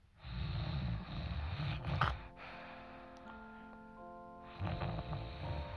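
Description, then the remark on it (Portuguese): Two long, rasping snores, one near the start and another at the end, with a quiet stretch of soft sustained musical tones between them. “Nessa cama tinha uma avó, uma avó roncando, numa cama aconchegante, numa casa sonolenta, onde todos viviam dormindo.”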